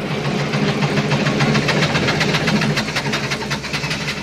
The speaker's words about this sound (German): Oh, verflixt und zugenäht. Jetzt macht unser Traktor wieder schlapp. Der wurde schon x-mal repariert, aber wir können uns leider keinen neuen leisten.